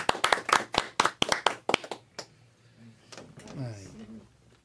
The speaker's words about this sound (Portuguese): E vamos terminar isso com uma salva de palmas.